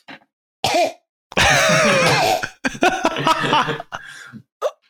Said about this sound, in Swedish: Och, och till slut så kraxar jag ut. Jag måste hosta! Och de typ så här, hands off, okej, okay, hosta. Och jag vrider huvudet åt sidan.